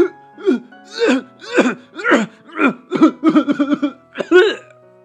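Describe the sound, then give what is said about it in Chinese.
A voice loudly imitates a fit of coughing, voicing a little tiger in a children's story that coughs because a small mouse has fallen into its throat: about ten harsh, voiced bursts in quick, uneven succession, with a short pause before a final pair of coughs. “这小老虎呢，忍不住大声的咳嗽起来。”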